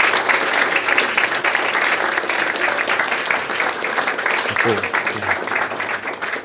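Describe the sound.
Steady audience applause after a lecture at a Science Cafe event, a dense, even clatter of many hands clapping throughout, with a brief low voice murmur partway through.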